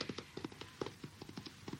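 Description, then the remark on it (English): Horse hooves clip-clop away in a quick, steady rhythm, each sharp knock following closely on the last, as someone makes off with the horse; no talking over them. “Don't go! That's my horse! That's my horse!”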